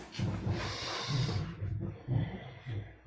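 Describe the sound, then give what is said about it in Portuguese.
A long, airy deep breath drawn in, followed by a slower, rougher exhale with a low, throaty rasp. No talking. “fazendo uma respiração profunda”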